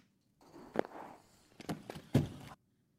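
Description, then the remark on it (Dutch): A Disney robotic rabbit rolls out of a crate with a short burst of mechanical rumbling, broken by three or four sharp clunks and thumps, moderately loud, then stops abruptly. “We hoorden namelijk de konijnrobot van Disney.”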